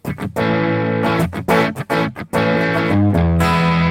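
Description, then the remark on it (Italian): An electric guitar played through an amp plugin on its default crunch preset, with a crunchy, mildly overdriven tone, plays a short phrase of strummed chords and single notes, loud and sustained, ending on a ringing held chord. No one speaks. “Ok, un suono crunch eh, abbastanza anonimo.”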